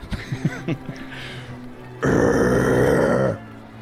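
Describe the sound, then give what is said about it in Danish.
A loud, drawn-out burp lasting just over a second, rough and rumbling, following a few short grunting vocal sounds. “Okay, bøvsede du, eller lavede du det over?”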